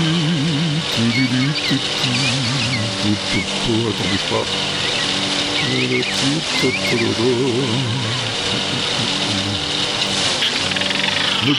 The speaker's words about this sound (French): attends, encore quelques, quelques coups de tondeuse à donner. Et voilà.